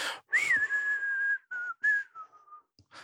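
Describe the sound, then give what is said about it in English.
A person whistles a short, wavering tune, a poor attempt at a film theme: a rising swoop into a long held note, then a couple of shorter phrases trailing off, with no talking. “oh, that's my poor rendition of trying to whistle.”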